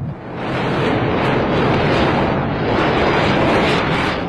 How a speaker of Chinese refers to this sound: 十一月八日。第十四届中国国际航空航天博览会在珠海开幕，运油二零在巨大的轰鸣声中出场，进行它的首秀。虽然当时是多雨的天气，但是难以掩盖这款大型加油机的雄姿。